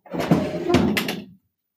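A house door is opened: a clunk of the latch and handle, then a short rattling scrape as it swings, all over in just over a second with no one speaking.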